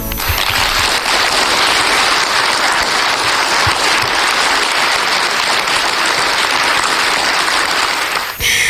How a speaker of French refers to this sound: alors merci de les applaudir.